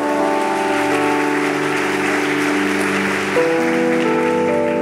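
Steady crowd applause fills the whole stretch, a dense wash of clapping at constant loudness, with sustained musical tones holding underneath and shifting pitch partway through.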